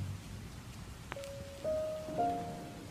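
rain falling

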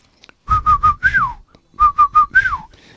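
whistling

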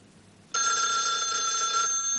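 telephone ringing

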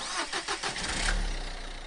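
car engine starting

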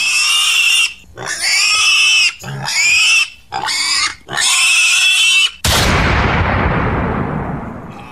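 pig squealing

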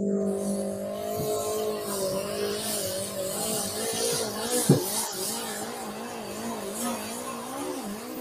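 race car engine revving

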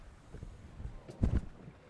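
wind

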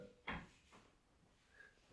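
doors opening and closing

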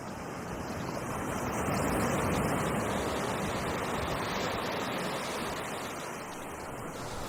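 ocean waves and surf

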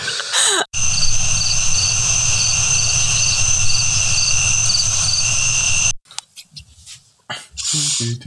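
crickets chirping sound effect

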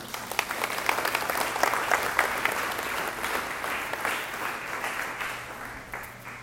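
audience applause

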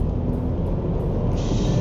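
car driving

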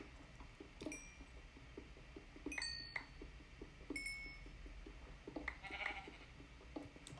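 sheep bleating

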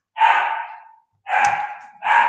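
dog barking

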